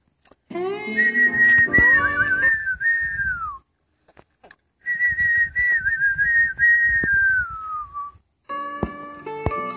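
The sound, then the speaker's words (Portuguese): A person whistles a bird's song in two long, wavering phrases that each slide downward at the end, with a brief pause between them and steady, fairly loud tone. “Ele sorriu, que era o passarinho que cantava com alegria.”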